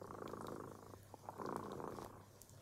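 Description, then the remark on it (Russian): A cat purring steadily, a soft continuous rumble that swells and eases with each breath, with no voices over it. “Слышите, кот дремота запел свою песенку.”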